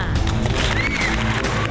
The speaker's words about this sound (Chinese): 好，接下来呢，我们这个要请上的一位是山西太原的，有一位七十九岁的这个老人，那么他呢就控制不住自己了，说什么也要今儿来发电啊！哈哈来，现在我们掌声欢迎他。